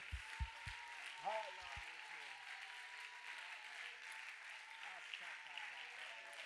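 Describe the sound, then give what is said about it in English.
An audience claps their hands to the Lord, calling on the name of Jesus, in a dense, continuous wash of applause, with scattered voices rising above it and a few low thumps near the start. “Come on, would you clap your hands to the Lord and call on the name of Jesus, that name that is higher than any other name?”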